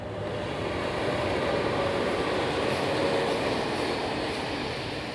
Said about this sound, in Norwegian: Jeg tok toget ut til Aurora, en sånn liten by utafor Eller nei, kanskje ikke så liten, men en by utafor Chicago.